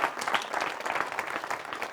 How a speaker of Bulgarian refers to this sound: Да, може да ръкопляскате.